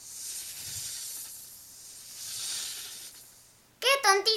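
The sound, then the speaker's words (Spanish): A long, steady snake hiss, breathy and fairly loud, swelling and fading for several seconds as the snake moves away through a forest, before a voice briefly cuts in at the end. “Y siseando por el bosque, la serpiente se alejó.”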